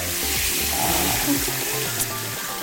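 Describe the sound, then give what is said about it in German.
Running tap water pours steadily as hands are washed with soap beneath it, a continuous hiss with faint low background tones and a brief splash near the end. “Ich wasche jetzt meine Hände”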